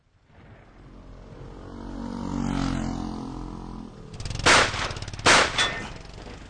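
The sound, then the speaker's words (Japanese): A low droning rumble builds for a few seconds, then two loud, sharp gunshots, fired suddenly at a group, ring out about a second apart, each with a brief ringing tail. “大丈夫かああ、水筒に穴が開いただけだ畜生憲兵だらけじゃねえか一体何が起きてるってんだあいつら突然撃ってきやがって”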